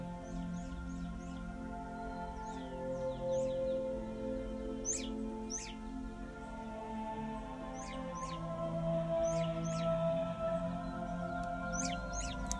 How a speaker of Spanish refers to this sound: Tengo visitas. Son dos mirlos que están aquí participando del mensaje